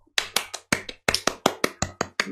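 A quick, steady run of about a dozen sharp, crisp hand claps, each snapping out and dying away fast, with no voices over them.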